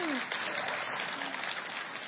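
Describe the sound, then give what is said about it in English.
A church audience applauds steadily to welcome a speaker, a dense wash of many hands clapping at once with no pauses, holding an even loudness throughout. “Oh, it's fun getting clapped for.”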